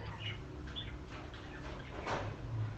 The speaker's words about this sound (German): Und das im Hintergrund sind meine Vögel. Fanden die es denn auch gut? Also, diesen Geräusch nach zu urteilen,